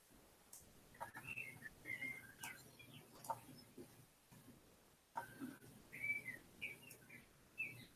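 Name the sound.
birds chirping outside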